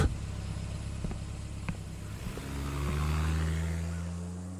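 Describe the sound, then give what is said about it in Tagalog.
A diesel jeepney engine idles with a few clanks as a passenger gets off, then revs up, its rising drone swelling loudly as the vehicle pulls away and begins to fade. “Bumaba ako sa jeep.”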